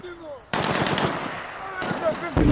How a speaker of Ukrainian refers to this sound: І так, з вибухами вона дійсно схожа на реальні умови бою. Ти воно повсюди взривається, йде постріл, ти не розумієш, що відбувається, але тобі потрібно зорієнтуватися і виконати своє завдання.